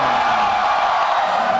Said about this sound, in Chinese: 听到你们的欢呼声，我都出汗了。谢谢大家，谢谢谢谢大家的笑声和掌声。这一场的那个效果超级棒，你们是最棒的观众。